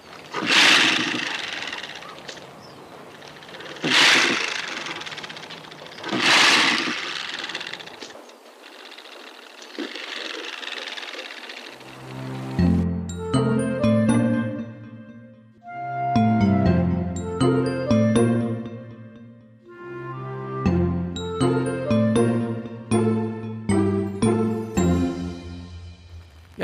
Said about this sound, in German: dass sie sich angegriffen oder bedroht fühlen, habe ich mal geschaut, gibt es denn in einem Geräuschearchiv mal ein rasselndes oder raschelndes Stachelschwein zu hören. Und da hören wir mal rein. Wie klingt so ein Stachelschwein rasseln, rascheln?